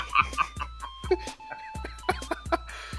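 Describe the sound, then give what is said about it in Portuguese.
A quick, irregular string of robotic bleeps, blips and clicks with short tonal chirps and pitch glides, fairly loud, playing on its own without talk. “Sons aleatórios de robô.”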